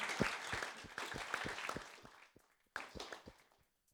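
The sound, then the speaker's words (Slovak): A crowd applauds with dense, overlapping claps that taper off after about two seconds, then a second, shorter burst of clapping rises and fades out. “To si myslím, že to si zaslúži potlesk jednoznačne.”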